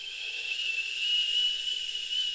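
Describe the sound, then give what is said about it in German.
Someone imitates with their voice a high, thin whistling hiss that began while lying in bed falling asleep, one steady sustained tone held for about two seconds, fairly quiet, with no talking around it. “Und anstatt dass ich in Schlaf rübergegangen bin, hat es erst so ein zu pfeifen angefangen, wie so ein”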